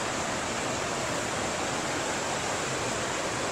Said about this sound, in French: Voilà, donc là c'est la rivière.